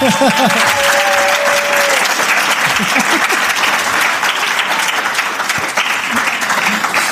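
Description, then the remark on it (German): Steady, dense applause from many hands at a live show at the MAG in Erfurt fills the whole stretch at an even, loud level, with someone laughing briefly near the beginning. “Ja, wer sich jetzt wundert, wo das Klatschen herkommt, wir haben uns ein Soundboard gekauft.”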